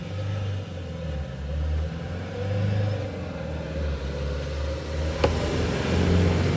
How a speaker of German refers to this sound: Da kann das schon mal vorkommen, dass hier auch ein Auto vorbeifährt. Kann auch mal so ein Auto vorbeifahren, das stimmt.